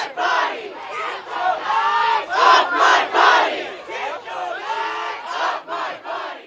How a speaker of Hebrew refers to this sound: עד שהגענו לרגע הזה, ואפשר לשמוע בקולות את הזעם הגדול ששמעתי ברחובות.